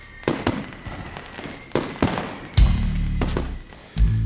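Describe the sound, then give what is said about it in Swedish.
Fireworks rockets exploding in a series of sharp, crackling bangs, several quick bursts followed by heavier booms with a deep rumbling tail, loud and with no voices. “Från de 300 ton raketer som skjuts upp sprids det 78 ton luftburna partiklar, små partiklar alltså, och 10 ton metaller i vår miljö.”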